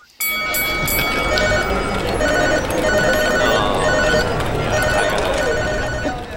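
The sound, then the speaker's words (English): A loud, continuous electric bell rings nonstop for several seconds, a harsh metallic clanging like a stock exchange opening bell, with a busy crowd-like roar underneath. “Oh, is that a bell I hear? Is that the stock market bell?”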